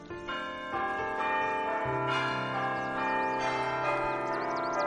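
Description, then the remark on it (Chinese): A clock in a house chimes midnight with a run of deep, resonant bell strokes, each tone ringing on and overlapping the next in a slow, steady sequence. The chimes are loud and clear, with no talking. “这时候，房子里响起了午夜的钟声。”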